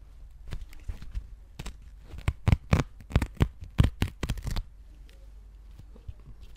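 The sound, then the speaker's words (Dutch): A nearly used-up toilet paper roll being handled, with a quick, irregular run of crisp rustles, taps and crinkles that builds for a few seconds and then drops away to near silence. “Hebben jullie allemaal jullie eigen wc-papierrolletje? Ja. En dit is wat je nog over hebt?”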